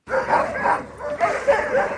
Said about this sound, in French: Les aboiements ne laissent aucun doute, on est bien arrivé chez Nick Petit